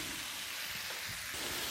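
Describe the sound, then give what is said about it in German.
A steady, soft sizzle of vegetables frying in a hot pan with the heat turned down, a continuous crackling hiss at low volume with no voices. “Jetzt werde ich es wieder ein bisschen kleiner stellen, damit das Gemüse in Ruhe hier schmurgeln kann.”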